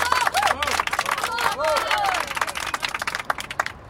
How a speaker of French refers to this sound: Chers amis, chers camarades, je vous demande d'accueillir par vos applaudissements les plus chaleureux Monsieur Georges Segui.